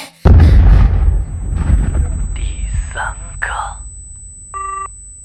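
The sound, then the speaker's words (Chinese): A car explosion goes off with a sudden, loud boom and a deep rumble that fades slowly, killing the man in the car. Warbling, garbled voice-like sounds follow, then a brief electronic beep tone. “我知道，那个爆炸声来自于田杰的汽车。”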